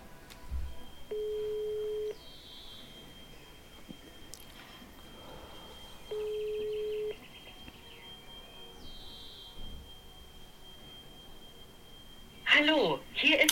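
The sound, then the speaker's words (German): A telephone busy signal as a call to a phone-a-friend lifeline goes unanswered: two steady low-pitched tone bursts about a second long, spaced several seconds apart, over a faint continuous high whine, ending with a burst of voices. “wenn man den Telefonjoker anruft und der ist nicht erreichbar”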